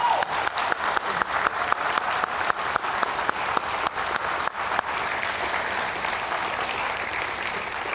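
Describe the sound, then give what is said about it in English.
An audience at a Holy Week Christian gathering breaks into a round of applause, dense crisp clapping that starts with sharp individual claps and settles into a steady, sustained wash of sound. “All right, so before I pray, can we just have a huge round of applause for this?”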